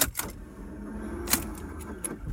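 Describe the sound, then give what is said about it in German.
A car's starter motor fails to catch: sharp clicks and clunks come at uneven intervals over a low mechanical hum, with no engine turning over. The car's starter is not working and the car does not start. “Das ist das Geräusch meines Anlassers.”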